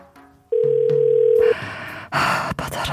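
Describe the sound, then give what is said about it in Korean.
A single steady electronic telephone ringback tone, about a second long, from a call ringing out unanswered, followed by louder rustling, handling noise. “아, 얘는 왜 이렇게 전화를 안 받아? 아, 다시 해봐야겠다.”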